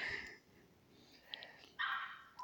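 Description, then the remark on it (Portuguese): A dog barks several times in irregular bursts, a sharp yap at the start, short barks in the middle, then a louder, longer bark near the end, with no talking. “eu tô muito preocupado com esse cachorro latindo, eu tô com medo de estragar todo o podcast.”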